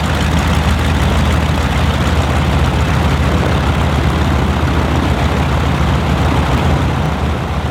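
Several piston engines of an old German Ju 52 propeller aircraft run, a loud, steady, rumbling drone with a deep throbbing beat that never lets up, as the third engine is started.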